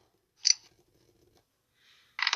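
Dice clatter: a sharp knock, a stretch of faint tumbling, then a loud burst of rapid rattling at the end. No one speaks.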